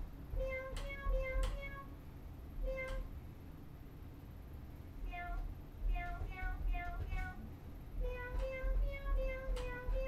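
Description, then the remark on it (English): A cat toy keyboard plays a sequence of synthetic meows as notes, short tones in quick bursts of two or three, stepping up and down in pitch over a low rumbling background. “You, you can play it and it meows really”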